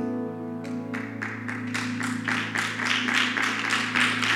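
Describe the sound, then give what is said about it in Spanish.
A crowd breaks into applause for God that builds into steady rhythmic clapping, growing louder over a sustained low humming musical tone. “Y si le vas a aplaudir a Dios, es para Él.”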